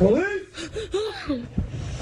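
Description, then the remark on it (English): Heavy breathing from a frightened student, recorded during a police evacuation of the UNLV campus in Las Vegas, broken by several voiced, shaky gasps and whimper-like catches in quick succession over a couple of seconds. “You can hear her breathing as police moved in to, to get everybody out, and students were very worried.”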